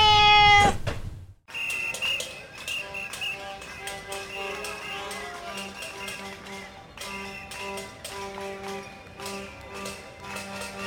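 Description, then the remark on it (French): A loud, drawn-out cat meow opens a station ident for La Centrale radio, then breaks off into a brief pause before a steady musical bed with tapping percussion and sustained tones takes over for the rest. “La centrale, c'est la radio des chats.”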